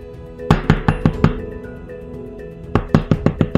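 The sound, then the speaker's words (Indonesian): Two bursts of firm knocking on a door, about five quick raps each, separated by a short quiet pause. The knocks are sharp, with no voices. “Terdengar suara pintu diketuk.”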